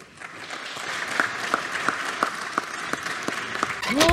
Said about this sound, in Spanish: Más de la mitad de los delegados de la OMS, la Organización Mundial de Salud, se salieron cuando empezó a hablar Gatel. Y miren el aplauso que presumieron los chairos.